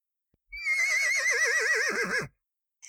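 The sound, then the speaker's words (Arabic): A horse gives one loud whinny lasting under two seconds, its quavering, shaky cry sliding downward in pitch before cutting off, with no voices around it. “سرعان ما التقت الفطيرة الكبيرة بحصان قال الحصان”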